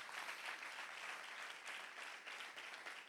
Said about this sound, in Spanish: Dale un aplauso fuerte a Jesús si tú lo crees.